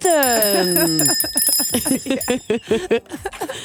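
A hand bell rings with a bright, sustained metallic tone that lingers throughout, while voices and laughter are heard underneath it.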